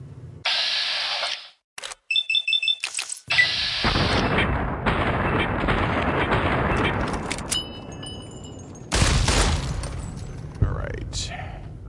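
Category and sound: sound effect, video game gunshots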